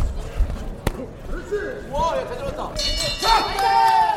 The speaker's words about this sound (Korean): 네, 가까이에서 보니까 글러브로 상대방을 공격하고 막는 소리가 더 잘 들리는데요. 짧은 시간 안에 집중을 해야 하는 경기인 만큼 그 에너지도 느껴집니다.